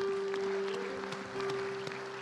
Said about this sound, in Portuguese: Você não vai começar a aplaudir Aleluia, a Deus, não? Jesus.